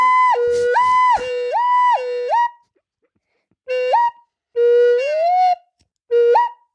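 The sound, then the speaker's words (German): A flute imitates a bird call, warbling up and down in a repeated zigzag pattern, then plays a few shorter phrases, including a slow upward glide; fairly loud, with no talking. “Klingt schon? Naja. Ganz gut nach einem Vogel.”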